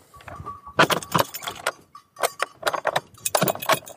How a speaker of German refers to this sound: Schloss wieder vor die Hütte. Schlüssel wieder einpacken. Ah. Stöcke in der Hand, Hütte abgeschlossen.